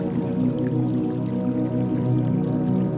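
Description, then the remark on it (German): A gentle, steady babble of a crystal-clear brook in a flower meadow, a continuous low burble of running water with soft drips, even in loudness throughout, with no voices. “Prächtige Blumen in all deinen Lieblingsfarben blühen hier und ein kristallklarer Bach plätschert sanft vor sich hin.”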